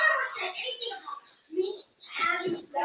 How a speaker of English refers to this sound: But y'all guys get to hear the argument that's going in in the other room, even though they know we're doing a podcast. So yeah, I'll, I'll say I'm sorry for the noise in the background, guys.